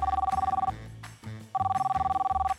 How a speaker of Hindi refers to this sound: अरे भाई फोन तो उठाओ